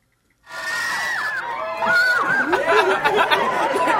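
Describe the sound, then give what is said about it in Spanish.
After a moment of silence, a crowd of children reacts as President Trump comes out to say hi to them, breaking into overlapping murmurs and scattered high calls, growing slightly louder midway, with no clapping or applause at all. “Okay, so yeah, Trump coming out to say hi to the kids. Wait. So President Trump, he... oíste la reacción de ellos.”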